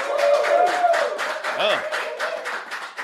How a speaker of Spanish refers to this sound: Yo quiero presentarlo acá en Molusco TV. creo que le den un fuerte aplauso. Aquí está Jay Fonseca, puñeta.